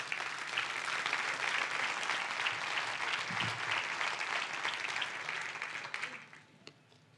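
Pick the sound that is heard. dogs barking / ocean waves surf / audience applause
audience applause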